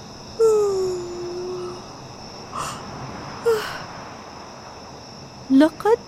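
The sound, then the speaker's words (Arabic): A steady, high-pitched chorus of night insects chirps continuously throughout, with a sliding whistle-like call near the start and a few brief, louder bursts over the drone. “الليله هادئه اليوم اسمع صوت صرير الحشرات في هذه الليله الجميله”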